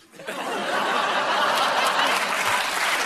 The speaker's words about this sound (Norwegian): fikk jo liten applaus eh, på slutten her.